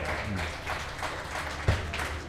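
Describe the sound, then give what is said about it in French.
An audience breaks into steady applause, a dense wash of many hands clapping at once with a brief sharper burst near the end, no one speaking over it. “applaudissez le pas pour rien.”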